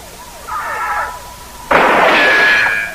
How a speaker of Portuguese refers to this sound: Ele amarra dinamite no arc e e dá um, uma flechada e explode.